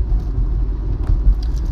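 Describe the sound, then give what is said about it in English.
Steady low rumble inside a moving car, with a few soft thumps and rattles as the tires roll over bumps and cracks in the road. No one speaks. “You get to hear the car go over all bumps and cracks turn signal when it comes on.”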